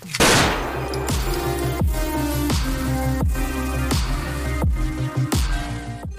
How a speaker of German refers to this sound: Dann feuert Prinzip seinen zweiten Schuss ab.